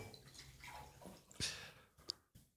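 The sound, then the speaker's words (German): Water flavoured with a Waterdrop cube pours into a glass, a steady splashy gush rising in brightness, followed by a few brief sharp clinks and drips as the pouring stops. “Ah, Wasser. Also das, ist, das, ist, kein normales Wasser.”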